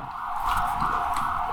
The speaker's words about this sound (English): You hear like those saying, sirens? You like hear those sirens? Dead ass. That's a siren.